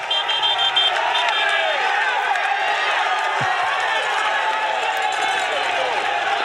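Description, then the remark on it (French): A dense roadside crowd of supporters cheers and yells nonstop for Thibaut Pinot as he climbs in the Tour de France, a loud, steady wall of overlapping voices and shouts with no pause. “là, il arrive au, plus fort des troupes euh, qui l'encouragent.”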